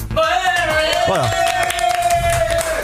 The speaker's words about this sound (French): bravo. Voilà, on peut les applaudir.